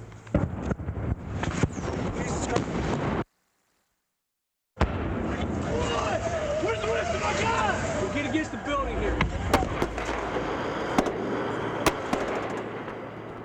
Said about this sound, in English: The U.S. forces get the Iraqi answer to the surrender plea in the form of rocket propelled grenades and a heavy barrage of mortar fire. This is the sound of an RPG whizzing overhead before the tape goes blank as this reporter dives behind a Humvee.